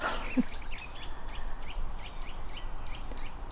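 A small bird near its nest calls in a quick, evenly spaced series of about eight high chirping notes over a steady background hiss, with no talking.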